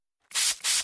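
Two quick hissing sprays from a steroid-free Astepro Allergy nasal spray pump, each a short burst of fine mist separated by a brief pause, with no one talking.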